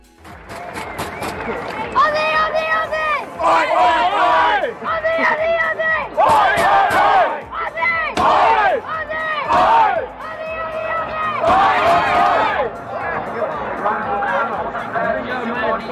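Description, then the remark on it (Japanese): A large crowd of supporters at an international sports match chants "Aussie Aussie Aussie, Oi Oi Oi" to cheer on the Australian team, in loud, rhythmic call-and-response bursts, many voices shouting together with a roar of cheering between phrases. “えどういうことかと言いますと、おじおじおじ、おいおいおいですね。これを掛け声として、えー、大空チームを応援しています。”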